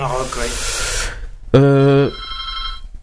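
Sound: telephone ringing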